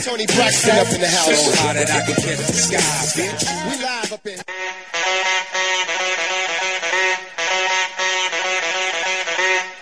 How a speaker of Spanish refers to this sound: Ahí está la alarma sonando.